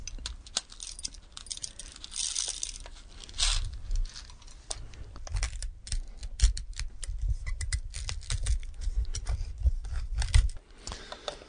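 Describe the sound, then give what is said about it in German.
An old, historic hand coffee mill grinds coffee (mocha) steadily for the whole stretch: a dense, gritty crackle of tiny rapid clicks over a low rumble, swelling and easing slightly as the crank turns, with no voices. “Ja, mit diesen Mühlen wurde also äh, Kaffee gemahlen, Mokka gemahlen in verschiedener Körnung, verschiedener Mahlgrad und äh, Körnungsgrad.”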